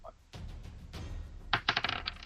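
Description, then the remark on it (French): A six-sided die (D6) clatters across a hard table, a couple of sharp ticks first, then a burst of rapid bright rattling clicks that quickly settle. No one speaks. “Je pense que c'est un D6, hein, ça?”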